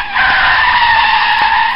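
A loud, sustained screech of car tires skidding under hard braking, a high squealing tone held steadily for nearly two seconds with no voices.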